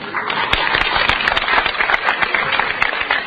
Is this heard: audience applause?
yes